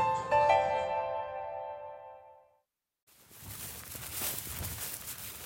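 A short tonal chime fades to silence, then close footsteps push through tall, dry plants, leaves rustling and swishing steadily with each stride. No one speaks.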